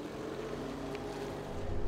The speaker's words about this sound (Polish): Robert odpalił silnik i ruszył.